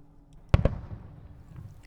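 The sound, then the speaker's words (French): Two sharp fireworks bangs in quick succession, followed by a rumbling, crackling decay that trails off into a low background hum. “Les feux d'artifice, le bonheur, la peur.”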